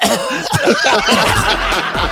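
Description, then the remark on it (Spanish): A voice imitates a dry cough with a rapid run of short, rough, breathy bursts, fairly loud, edging into a snickering laugh. No words are spoken. “Y cuando ella pregunta de quién es este número, ahí es donde empieza la tos seca, así.”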